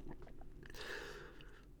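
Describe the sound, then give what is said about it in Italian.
Close-up chewing with wet, crunchy mouth sounds and a brief louder crunch partway through, steady and intimate with no talking. “Ma allo stesso tempo sentire qualcuno che mastica mi fa lo stesso effetto di sentire dal vivo qualcuno nell'orecchio che mastica.”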